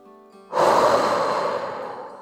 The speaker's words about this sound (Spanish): Te invito a tomar una respiración profunda conmigo, que esto de oxigenar el cerebro siempre es bueno. Inhala por nariz